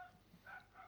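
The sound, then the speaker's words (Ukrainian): A dog barks a couple of times in quick succession, faint, outside in a yard in a village, with no one talking over it; the dog is kept by an old woman living nearby. “Це пес в тебе на подвір'ї”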